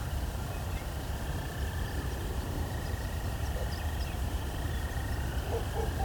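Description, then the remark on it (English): A continuous chorus of frogs trills steadily among ditches and banks by a quarry, forming an unbroken wall of calling, with heavy low wind rumble underneath and faint bird notes now and then. “Of course, we can hear the chorus frogs as well.”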